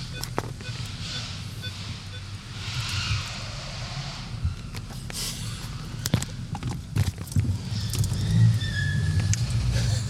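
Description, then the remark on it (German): Car tires squeal in high, strained bursts on a parking garage floor over a steady rumble of engine and road noise, with a thin sustained screech returning near the end. “Ich weiß nicht, ob das auf meine Autoreifen, äh, auf, auf meine Autoreifen auch zutrifft.”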